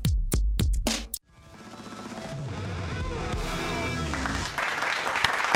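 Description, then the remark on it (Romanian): A short, loud drum fill: about half a dozen sharp hits in quick succession, ending abruptly, then a brief pause before a dense, sustained wash of sound like applause takes over. “S-a terminat așa cu un solo de drum.”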